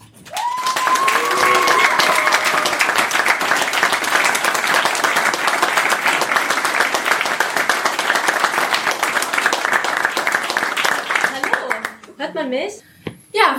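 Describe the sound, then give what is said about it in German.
A large audience applauds steadily for about twelve seconds as a guest is called to the front, a dense wash of clapping with a few whistles and cheers near the start, fading out as a voice begins speaking. “Deswegen einen kräftigen Applaus für unser Forever Nerd Girl”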